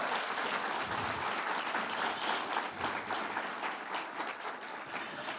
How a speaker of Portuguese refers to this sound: Yes, dê para Jesus uma forte salva de palmas.